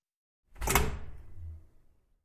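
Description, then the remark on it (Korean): A door bursts open with a sudden loud crack, followed by a low rumbling swing that fades out over about a second. No voices. “갑자기 문이 벌컥 열렸다.”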